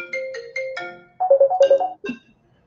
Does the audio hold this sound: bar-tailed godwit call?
no